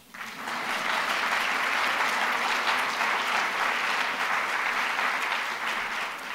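An audience breaks into steady, sustained applause for the event's supporters, including RBC and the Globe and Mail, a dense wash of many hands clapping that swells quickly and holds at a fairly loud level throughout.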